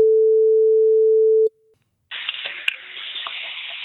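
A single steady telephone ringback tone sounds for about a second and a half, then cuts off. After a brief silence, a loud rush of hissy line noise follows as the call connects.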